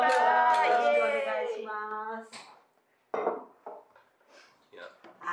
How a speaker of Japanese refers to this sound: あのウブローのデザインプライズの最終のねファイナリストに残られたということでまずは乾杯しましょう、はい、ありがとうございますではではおめでとうございますおめでとうございます